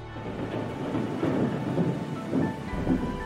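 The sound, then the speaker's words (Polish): Steady heavy rain pours down in a thunderstorm over the Olympic stadium in Mexico, with low rolling rumbles of thunder swelling and fading beneath the dense hiss of falling water. No voices are present. “Symbolicznie burzowe chmury, które zawisły nad Meksykiem, nagle rozlały się na stadionie olimpijskim i zmyły wszelkie szanse na odwrócenie sytuacji.”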